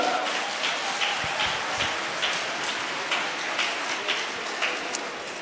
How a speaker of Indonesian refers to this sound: Saya nggak tahu kalian tepuk tangan untuk apanya ya. Saya bingung bener. Ngapain tepuk tangan?